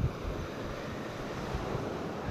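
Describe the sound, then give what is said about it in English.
Ocean waves wash steadily onto a shore in a continuous hiss of surf, with a low rumbling swell and some wind buffeting the microphone. No one speaks. “Hope the waves don't bother everyone, but instead are more of a soothing sound.”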